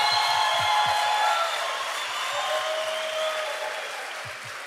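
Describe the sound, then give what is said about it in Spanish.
An audience applauds the young Latino people steadily, a dense wash of many hands clapping that stays loud for a few seconds and then eases off slightly toward the end, with no one speaking. “Me encanta estos jóvenes latinos aplauso.”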